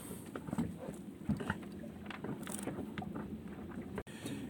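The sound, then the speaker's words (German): Interior ambience in a room aboard a boat: a steady low rumble with soft creaks and knocks and gentle water movement, continuous and fairly quiet, with one brief dropout near the end. “Ja, ich habe mir jetzt halt nochmal die Zeit genommen und versuche hier auf dem, auf dem Boot, ähm, zuerst also im Wohnzimmer,”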